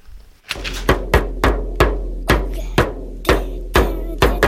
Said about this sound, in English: That noise you hear is my oldest son going all … on his drum set. Now, imagine 11 more of these.